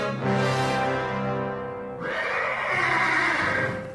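A horse neighs loudly, a long shrill whinny with a bright harmonic stack, then breaks into a rougher, noisier second whinny that carries on for a couple of seconds.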